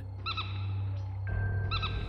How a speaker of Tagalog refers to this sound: Ang tagal naming pinakinggan ang huni ng kikik at hindi kami natulog hanggang mag-umaga.